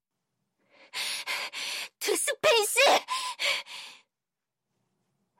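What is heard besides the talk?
heavy panting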